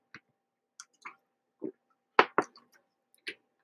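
Someone picks up a glass of water and drinks, making a string of soft clicks and gulping swallows with a louder knock midway, irregular and fairly quiet, with no talking.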